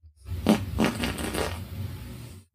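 A close, sputtering fart: a couple of quick bursts followed by a longer rasping trail that fades out after about two seconds, with no talking.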